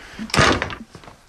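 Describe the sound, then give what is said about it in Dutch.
A heavy door swings and shuts with a solid, close-up thud and a brief rattle of hardware, followed by a quiet room with faint shuffling; no one speaks. “Deze deur zou, is, is denk ik ook nog kogelvrij, maar hij is zo dik dat hij soundproof is.”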